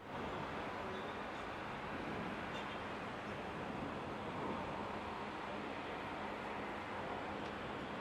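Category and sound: vehicle, airplane engine roar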